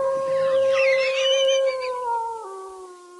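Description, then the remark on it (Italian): A person playing the wolf in the radio show Fattoria McKenzie imitates a wolf howl, holding one long, loud, steady wavering tone that dips slightly lower near the end, heard alone without any talking. “Ah, ah sì, scusate, sono il lupo.”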